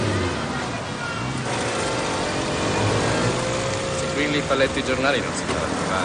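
A moped engine buzzes steadily, then revs up with a rising, whining pitch as a young man starts off and rides away from the Plaza de España in Rome. The motor noise stays loud and continuous for the whole six seconds.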